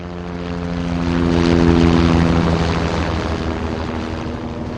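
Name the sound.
helicopter flying overhead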